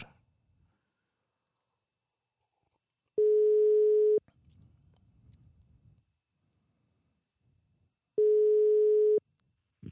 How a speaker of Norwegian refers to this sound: så prøver vi å ringe Kirsti Grøttan og se om hun er til svars